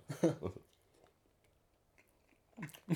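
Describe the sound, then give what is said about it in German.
Wet smacking of someone chewing banana, with a couple of moist bursts at the start and again near the end, separated by a quiet pause. “Safe gehört das. Okay, ja, ein guter Schmatzer.”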